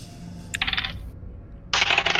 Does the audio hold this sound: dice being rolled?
yes